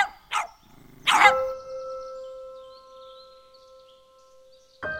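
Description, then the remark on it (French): Small dogs give a few sharp, high-pitched yaps, two close together at the start and one more after a pause, with a faint steady tone hanging in between. “À part ces affreux petits chiens qui me poursuivent en Japon.”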